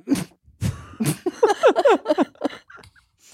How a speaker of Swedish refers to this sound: så här är det att leva med lungcancer, alltså. man får lite andnöd och hostattacker ibland.